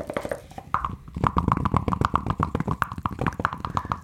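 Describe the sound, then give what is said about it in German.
Dice being rolled: a dense run of quick, irregular clicks and rattles that tumbles on for about four seconds, with a faint ringing tone beneath, and no voices. “Jetzt würfel ich mal, schau, was rumkommt.”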